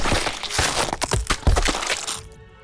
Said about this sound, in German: Mit einem gewaltigen Knall schoss sein Körper aus der Kanone und unter einem widerlich schmatzenden und knackenden Geräusch prallte er gegen die Wand.